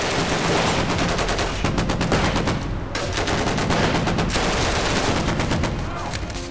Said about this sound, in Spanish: De pronto, todos menos Ulises sacaron rápidamente pistolas de sus bolsas y empezaron a disparar.